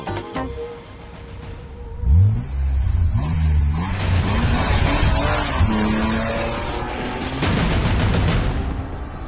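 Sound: racing car engines revving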